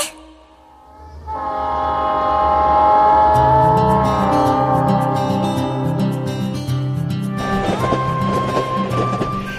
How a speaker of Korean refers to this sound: 오직 애청자 여러분을 위해 준비한 특별한 음악 여행 칙칙폭폭 칙칙폭폭 출발합니다. 추석 특집 트로트 열차